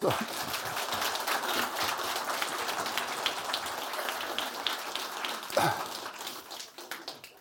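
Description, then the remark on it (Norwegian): An audience at a local history talk applauds a speaker steadily, dense overlapping claps forming a bright, crackling wash that holds for several seconds with only slight swells and no clear pauses. “Så med det så gir vi en stor applaus”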